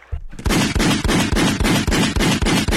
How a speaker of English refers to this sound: Gunshots on that.